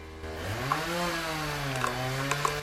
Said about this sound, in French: Des travaux démarrent juste à côté